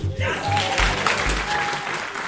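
An audience applauds and cheers, a dense, steady wash of clapping and voices that holds loud for a couple of seconds without letting up.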